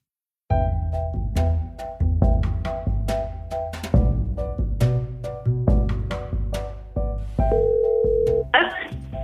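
A phone call rings through with steady electronic tones over a backdrop of rhythmic percussive hits, closing with a brief higher tone and a short burst of hiss.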